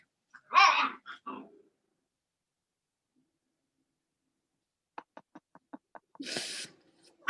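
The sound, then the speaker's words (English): Dogs growling and snarling playfully in short bursts, one growling as another tries to steal her pizza: a rough growl early on, then a quick run of clipped grunts and a final harsh snarl, with silence between. “growling because uh, Krishna's trying to steal her pizza”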